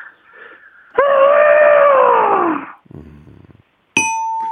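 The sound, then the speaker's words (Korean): A voice imitates an African elephant with one loud, drawn-out trumpeting wail that slides downward, followed by a low rumbling snort and then a bright bell ding. “아프리카 코끼리인데 웃기긴 했는데 그닥 그 코끼리 한번 다시 한번 들어볼게요.”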